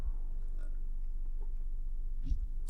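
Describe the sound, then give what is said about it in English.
Someone sips and swallows water: a few soft, wet gulping sounds with low throaty bumps and a brief airy slurp near the end, with no talking. “Let me get a sip of this water.”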